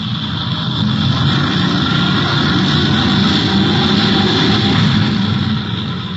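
A rocket engine thunders as the rocket takes off for Mars, in a loud, steady, unbroken roar, deep rumble with a harsh hiss above it, holding constant for several seconds with no voices.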